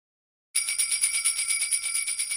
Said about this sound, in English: Uh, what's jingle bells? Jingle.